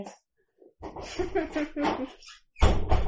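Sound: door being shut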